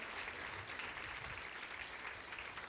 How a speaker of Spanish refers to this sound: ¿Podemos dar un aplauso al Señor? Reconózcanlo, reconózcanlo.